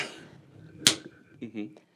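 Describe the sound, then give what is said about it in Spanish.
A single sharp open-palm slap, given as a demonstration, cracks out loud and brief, with a person talking quietly before it and speaking again just after. “a palma abierta, son golpes a palma abierta.”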